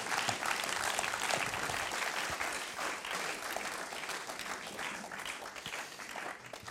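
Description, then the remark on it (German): An audience applauds steadily for several seconds, a dense, even wash of many hands clapping that holds its loudness throughout, with no one speaking over it. “Und lass uns doch mich einen herzlichen Applaus geben.”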